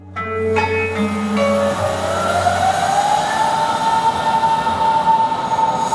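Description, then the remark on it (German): An S-Bahn commuter train pulls away from Beuselstraße S-Bahn station, its electric motors rising in a steady whine over a continuous rolling rumble. It is fairly loud, with no voices. “Irgendwann kommt man raus, stehst du vor der S-Bahnhof Beuselstraße vom Automaten, den du gar nicht kennst.”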